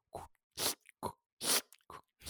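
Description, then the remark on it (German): Wet sneakers, soaked in a saltwater pool, squelch with each step on the walk home, six loud, wet, crunchy bursts in an even walking rhythm, separated by short silences, with no talking. “Ja, diesmal nicht ganz reingefallen, aber äh, dann nach Hause mit dem Geräusch.”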